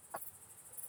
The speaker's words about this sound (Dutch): Mijn suggestie is het gechirp van krekels en sprinkhanen.